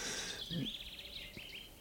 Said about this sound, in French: dans la zone boisée, celui qu'on entend tout au fond, c'est un merle.